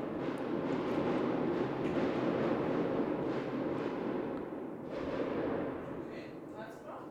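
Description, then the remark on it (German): Fireworks rumble and crackle in a steady, dense wash of booming noise, with a few sharper bursts poking through near the start and middle. “Aber irgendjemand böllert hier krass. Aber das hört sich nicht so krass an wie ein Böller”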